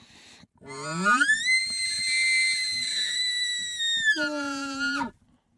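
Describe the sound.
An elk bugle blown on a diaphragm call through a bugle tube: a low note sweeping up into a long, loud, piercing whistle that holds, then drops abruptly into a deep grunting tail before cutting off.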